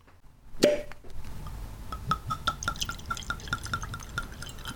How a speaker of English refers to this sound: I haven't tasted this. is actually a fresh cork pop. So let's go ahead and get it open.